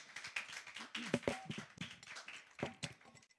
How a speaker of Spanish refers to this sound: Si usted lo cree, den un aplauso fuerte al Señor.